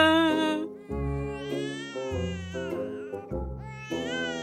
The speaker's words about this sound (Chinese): 等等，我听见宝宝哭了。哎，宝宝还在屋里呢，快找找。找到了，宝宝在床下呢